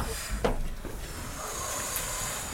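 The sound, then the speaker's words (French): Children blow out a steady, breathy whoosh imitating a very strong wind, a soft continuous hiss lasting the whole moment with a brief stronger gust near the start. “et maintenant on va faire le vent sur”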